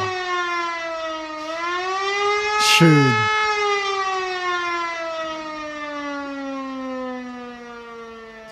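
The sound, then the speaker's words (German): A civil defense ABC alarm siren in Germany wails as one steady, rich tone, swelling slightly in pitch and then sliding slowly downward, with a brief spoken word cutting in partway through. “erste Mal über den ABC-Alarm geredet”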